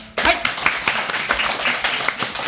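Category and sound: crowd, audience clapping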